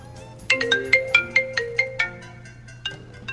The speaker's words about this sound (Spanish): Mamá, te está sonando el celular.